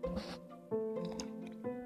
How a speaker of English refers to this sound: Brought my tea out. Might slip, uh, might slurp a little bit while I'm uh, recording this, like right now.